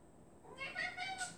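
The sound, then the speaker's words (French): A cat meows in a short, drawn-out, wavering call with a couple of rising and falling pulses, moderately quiet, with no one speaking over it. “Ah, j'ai un chat qui essaie de parler.”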